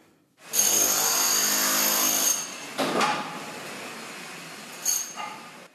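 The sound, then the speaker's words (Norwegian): A loud, harsh mechanical whine of drilling runs for about two seconds, followed by scattered clanks and knocks of cement trucks and excavators at a construction site rebuilding L'Aquila, Italy, after an earthquake, with steady background rumble. “Boring, sementbiler gravemaskiner.”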